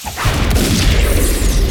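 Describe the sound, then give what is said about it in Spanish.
A loud gunshot bursts out, its booming low rumble and hissing, whooshing noise rolling on for nearly two seconds without fading much. No voices are heard. “Disparo.”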